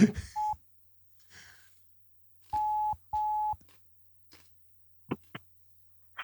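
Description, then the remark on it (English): Telephone dialing tones placing a call: three steady electronic beeps, one short and then two longer in close succession, followed by a couple of brief clicks, with no one talking. “We're calling you live on the podcast.”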